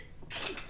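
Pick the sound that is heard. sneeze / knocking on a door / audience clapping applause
sneeze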